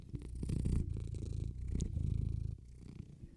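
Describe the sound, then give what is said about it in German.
A male cat sitting on a person's lap purrs loudly into a microphone, a low rumbling drone with a steady rhythmic pulse of inhales and exhales, no voices over it. “Ich lasse ihn einmal, ich lasse ihn einmal ins Mikrofon für euch reinschnurren.”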